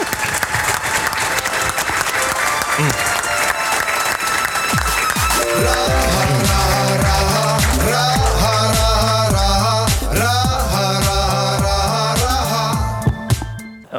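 A crowd claps loudly and steadily for about five seconds; then upbeat music with a pulsing bass line starts over the fading applause and carries through to the end.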